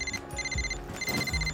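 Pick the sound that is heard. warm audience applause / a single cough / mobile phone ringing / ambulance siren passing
mobile phone ringing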